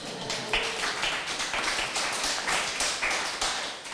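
A burst of applause from a small group in a cooking studio in Willemstad, Curaçao, given for the host chef, steady overlapping claps filling the whole stretch at moderate loudness, with no one speaking.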